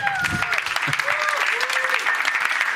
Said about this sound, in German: Einen warmen Applaus für die warmen Brüder.